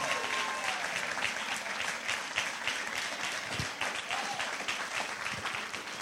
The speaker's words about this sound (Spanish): Alguien le da un aplauso fuerte al Señor Jesús.